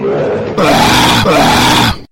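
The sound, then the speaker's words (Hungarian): A man lets out a loud, drawn-out roar in imitation of a lion, a rough growl that swells into two forceful blasts with a brief catch between them before cutting off. “Helyes a bőgés, oroszlán!”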